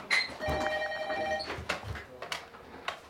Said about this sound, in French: Tu peux répondre. Ah ouais, au téléphone.